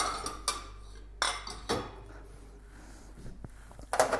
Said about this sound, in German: Das Messer. So. Ist jetzt heute ein bisschen Haushaltsarbeit zu hören. Aber mit verschiedenen Mikrofontypen, sage ich jetzt.